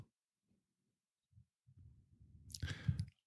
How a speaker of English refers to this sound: You're still doing it. Uh, it's unconscious. Exactly. You're like the rest of those woke people internationally. You think you're like so awake and you're clicking your nails.